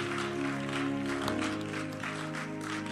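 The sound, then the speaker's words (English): An audience claps steadily in a dense, continuous patter, with sustained musical tones humming underneath throughout the few seconds. “Your clapping is not a welcome.”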